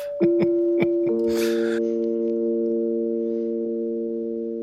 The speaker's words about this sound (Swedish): Liksom de, det, det ackordet. Den är jävligt old school. Det Känns som att den har varit med sedan hundratusen år. Ja. Det är coolt att det, det, är liksom tre toner som klingar så fint tillsammans.